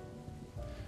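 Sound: rain falling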